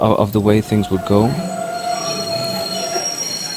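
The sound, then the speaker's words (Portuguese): Train wheels squeal sharply against the rails, a loud, sustained metallic screech with shifting high tones over a steady rolling rumble of a moving train, taken from the World Trade Center in Manhattan, New York, across the Hudson River toward Ironbound. “E para entendermos os acordes da imigração portuguesa em Nova York, também os novos sinais, apanhamos o comboio no coração de Manhattan, no World Trade Center. Atravessamos o rio Hudson, de microfone ligado.”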